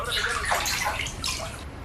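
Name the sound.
water moving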